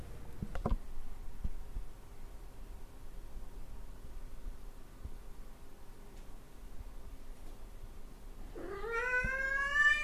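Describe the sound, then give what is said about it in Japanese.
Nearly eight seconds of quiet with a few faint clicks as a microphone is pointed at a cat to count its meows over 30 seconds, then a single drawn-out meow that rises in pitch and carries to the end. No one speaks. “このコーナーはマイクを向けてから30秒間で猫が何回目やっていうかで今後を占おうというコーナーです。”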